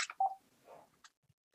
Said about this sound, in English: i don't know i apologize why the phone is just calling